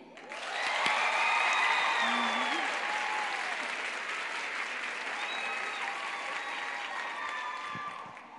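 A crowd applauds steadily for several seconds, the clapping swelling quickly and holding at a loud, dense level before tapering slightly, with faint voices and a few cheers mixed in.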